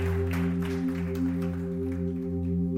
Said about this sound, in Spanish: Dar un aplauso a Jesús porque Él es maravilloso.